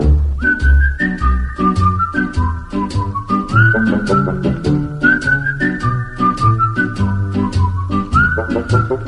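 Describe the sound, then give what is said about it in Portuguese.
A clear whistled melody of the United States national anthem glides slowly, carried over steady instrumental backing with a regular beat and deep bass notes, loud. “A derradeira mensagem foi entendida como uma tentativa sofisticada de dar uma cambalhota dupla para trás, assobiando o hino nacional dos Estados Unidos.”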